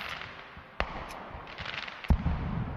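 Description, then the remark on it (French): Firecrackers go off in the streets on 14 July, the Fête de la République, in two sharp, separate bangs over a steady outdoor hiss, the second louder and followed by a brief low rumble. “Les pétards et les drapeaux m'amusaient comme un enfant.”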